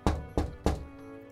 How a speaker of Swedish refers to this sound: Men porten var låst. Då knackade geniet på rutan och ropade.